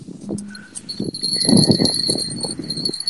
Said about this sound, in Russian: Я думаю, мы что-то уже поймали. Сейчас посмотрим. Да, что-то идет. Я думаю, колокольчики слышно, да?